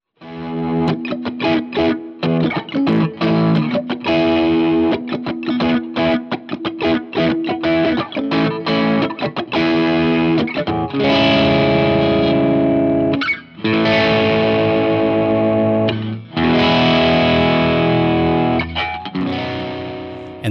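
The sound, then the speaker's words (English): A dense, loud wall of heavily distorted electric guitars fills the mix in a song's choruses, chugging in tight rhythmic bursts before swelling into sustained, saturated chords with brief gaps between sections. No one speaks. “for the choruses, it's just this like you know huge wall of sound, like 50 amps coming at your face kind of thing.”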